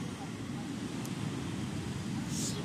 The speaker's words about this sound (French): Euh, parce que ben du coup je suis dehors après, bon, ça va, c'est assez plaisant parce que on entend les vagues. Mais j'espère juste que ce sera pas trop trop fort pour, euh, entendre ce que j'ai à vous dire.